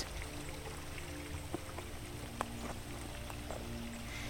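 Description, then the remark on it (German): A soft, continuous babble of river water bubbling and splashing beside a riverbank flows steadily, with a few brief splashes and drips standing out now and then. No one speaks. “Du schlenderst am Flussufer entlang und kannst zusehen, wie das Wasser neben dir sprudelt und plätschert.”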